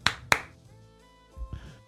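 A single person claps twice, two sharp, close hand claps in quick succession, followed by a few softer, duller knocks. No one speaks.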